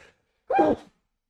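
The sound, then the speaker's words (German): A single abrupt, fairly loud sneeze with an oddly voiced, almost bark-like sound. It is brief and stands alone in near silence, with no talking. “Gesundheit.”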